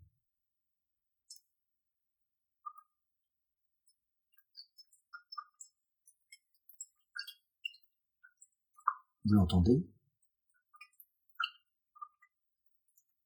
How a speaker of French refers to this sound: Il y a aussi les crépitements. Les crépitements d'une bûche, par exemple, on peut aussi avoir un peu.